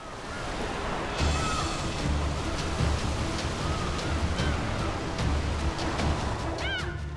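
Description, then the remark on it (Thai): A steady, loud wash of rough ocean waves and churning water around the British passenger ship Sadana sailing the Indian Ocean toward Mumbai on 30 July 1948, continuous throughout, with a few brief faint high-pitched cries and light splashes breaking through. “เรื่องเราของวันนี้เริ่มต้นด้วยเรือโดยสารที่แล่นอยู่ในมหาสมุทรอินเดีย”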